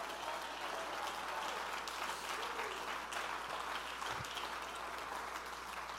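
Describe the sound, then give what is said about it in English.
An audience claps their hands, a dense, steady wash of many overlapping claps that fills the room at a sustained, even loudness from start to finish. “He come, come on, somebody clap your hands and say, He's able.”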